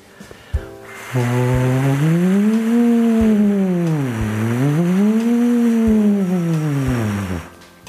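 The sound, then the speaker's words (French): A single voice hums a continuous buzzing tone that swoops up in pitch and back down twice, like a small siren, as a vocal exercise, steady with nothing else around it. “Pour les plus courageux d'entre vous, mettez encore la vidéo une nouvelle fois en pause et refaites trois fois l'exercice en faisant comme ça des petites sirènes.”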